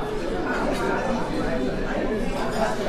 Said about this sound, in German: Ja, man hört es, aber man erwartet es nicht, denn wir sind in einem Wiener Kaffeehaus mitten in Wiesbaden.